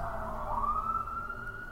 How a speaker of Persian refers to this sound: معلم ورزش وقتی دهانش را روی دهان زن میگذارد و نفسش را بیرون میدمد صدای ضعیف آژیرها را میشنود مثل زنگ آویزهایی که در باد به صدا در میآیند